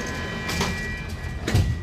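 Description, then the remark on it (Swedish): A metro train rumbles steadily while doors thud shut with a couple of sharp knocks, and the carriage begins pulling away with a low, continuous roar. No voices. “Se upp för dörrarna. Dörrarna stängs.”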